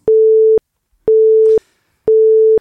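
A telephone busy signal sounds three times, steady half-second tones separated by equal gaps of silence, clear with no one speaking, heard when a phone call is placed and the line is busy.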